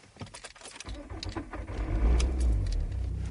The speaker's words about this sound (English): Let's start the car up.